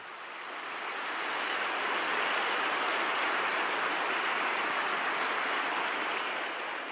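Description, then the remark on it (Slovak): A large crowd applauds steadily for several seconds for Mother Teresa's religious sisters, a dense, even wash of clapping that swells in at the start and holds without any talking over it. “Všetci spoločne potlesk pre tieto skvelé sestry.”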